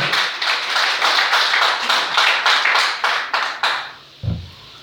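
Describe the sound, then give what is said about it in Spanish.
A church audience applauds for the Lord during a morning service, with dense, steady clapping that holds for about four seconds, then fades out, followed by a brief low thump. “Denle el aplauso al Señor, por favor, esta mañana.”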